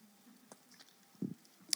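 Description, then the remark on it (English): A preacher takes a quiet sip of water: soft wet mouth clicks, then a low gulp in the middle and a sharp little smack of the lips at the end, with no talking. “Here's what I need you to know about me, real quick, after I take a sip of this water.”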